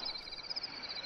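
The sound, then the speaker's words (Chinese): A cricket chirps in a steady, high-pitched trill, its rapid pulses running unbroken through the whole short clip with no voices present. “是蟋蟀吗？”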